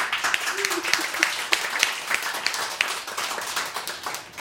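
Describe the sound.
A crowd applauds the radio programme's technician steadily, many hands clapping in a dense, continuous patter of sharp bright claps that holds at an even level for several seconds, with faint murmuring voices underneath.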